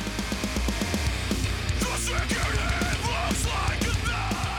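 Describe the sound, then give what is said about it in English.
A loud heavy metal concert in Los Angeles with about 8,000 fans: harsh screaming vocals over dense, distorted guitars and pounding, rapid drums, steady and intense throughout with no pauses. “Yes, heavy metal, loud guitars, screaming vocals, and mosh pits.”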